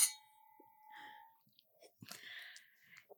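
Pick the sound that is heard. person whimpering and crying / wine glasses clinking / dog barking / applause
wine glasses clinking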